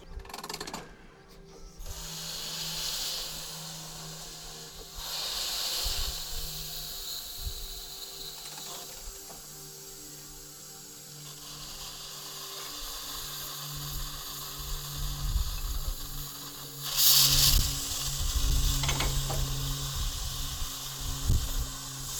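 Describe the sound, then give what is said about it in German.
The steam locomotive Emma, its fire freshly stoked with coal, slowly starts moving from its place beside the engine shed and is shunted toward the train: a steady mechanical hum with ratcheting, clicking chuffs, broken by loud bursts of steam hiss near the start and again toward the end. No voices. “So, am Qualm kann man sehen, der Heizer hat frische Kohle aufs Feuer geschaufelt und jetzt setze ich die Emma von ihrem Platz neben dem Lokschuppen langsam in Bewegung und wird in Richtung des Zuges rangiert.”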